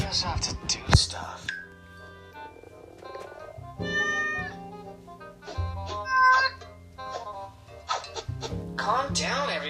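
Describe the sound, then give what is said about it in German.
A cat meows several times in drawn-out, wavering calls, clear, with other busy background sounds filling the gaps between the meows. “Sie, sie ist eine von den Katzen, die so richtig cool”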